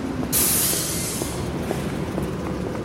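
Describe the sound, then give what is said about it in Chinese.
Busy, congested city street traffic at Tianfu Square rumbles steadily, a mix of buses, bicycles, motorcycles and taxis, with a loud, sharp hiss like an air brake bursting in early on and fading slowly over the continuous engine noise. No one speaks. “现在我们在天府广场正在录制，可以看见车流非常的拥堵啊，公交车、自行车、摩托车，然后 taxi，还有各种各样的交通设备混搭在一起的声音，还有人过马路的步行”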